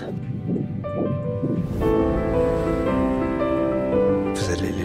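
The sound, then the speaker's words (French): A fast, rhythmic whooshing pulse like a fetal heartbeat on a doppler monitor, beating for a couple of seconds before soft sustained music swells in and covers it. “Vous voulez écouter le cœur”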